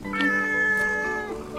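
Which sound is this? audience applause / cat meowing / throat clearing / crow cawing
cat meowing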